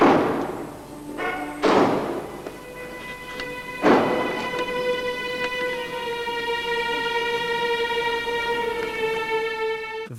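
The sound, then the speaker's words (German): Doors slam shut three times in the first four seconds, heavy booming bangs, as concert audience members leave loudly rather than hear Wagner (fewer than 100 of 3000 left), while a sustained orchestral chord hums steadily underneath and rings on afterward. “Das Türenknallen hören wir jetzt mal ganz kurz.”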